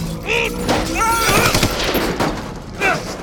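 Rapid bursts of gunfire crackle over a dense, noisy background, mixed with loud rising and falling whining tones that sweep in and out.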